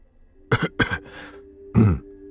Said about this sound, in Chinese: 朋友是咳嗽了一声，严肃的说道